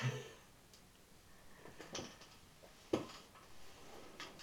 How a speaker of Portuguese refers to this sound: Esses barulhinhos soltos são a cadeira, gente. É que eu não consigo ficar parada. Então eu tenho que ficar me mexendo.